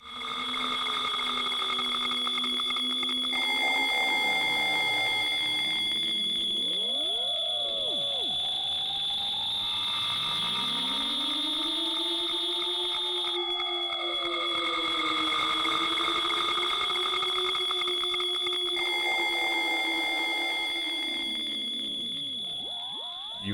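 A loud, continuous wall of noise music: shrill alarm-like tones drone steadily while warbling, gliding pitches swoop up and down beneath them, harsh and unbroken for the whole stretch, with no voices.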